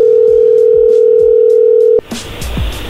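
After the other person hangs up a call, a steady, loud telephone dial tone hums for about two seconds, then cuts off abruptly into a noisier background with faint clicks and rustling.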